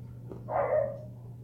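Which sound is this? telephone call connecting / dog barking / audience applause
dog barking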